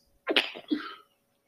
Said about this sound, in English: It's like sneezing on the air.